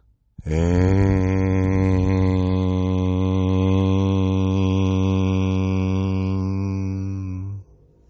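One long, steady vocal hum at a low, unchanging pitch, sounded aloud to vibrate and clear the throat (laryngeal) energy center, held loudly for about seven seconds before stopping abruptly. No talking accompanies it.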